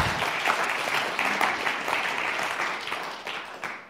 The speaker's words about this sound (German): Und ich glaube, wir dürfen denen einfach mal einen Applaus geben, weil die haben gestern auch den ganzen Tag hier verbracht.